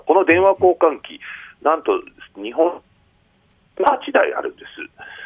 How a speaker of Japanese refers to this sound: あごめんなさい、今ちょっとね、音声途切れてしまって、すみません。